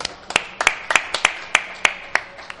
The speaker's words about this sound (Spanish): un aplauso, por favor. Gracias, chicos.